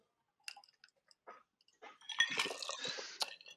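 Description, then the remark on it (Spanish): A quiet sip of a drink taken as a toast: a few small clicks of a glass and lips, then about a second of wet slurping and swallowing, with no talking. “Este trago es por ella.”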